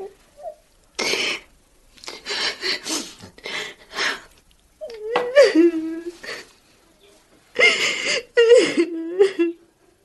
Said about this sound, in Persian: بابا جون چرا گریه میکنی؟